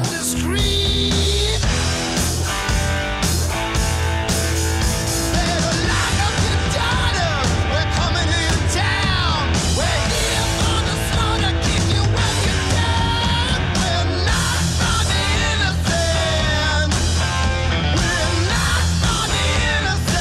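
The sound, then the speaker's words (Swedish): A heavy rock demo plays at full, constant loudness, with distorted guitars, pounding drums and a raw, shouted lead vocal riding on top throughout. “det här …-demot oh, är, med på, är, är, med på den här”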